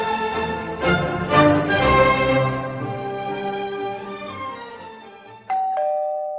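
A doorbell chimes several times in a resonant ringing sequence, its tones lingering and fading, followed near the end by a second sharper ring. Loud and close, no voices.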